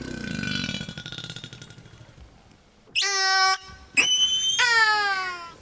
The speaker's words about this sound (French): Alors les orques ont une panoplie de sons hallucinante. Il y a plus de 60 euh, différents types de sons.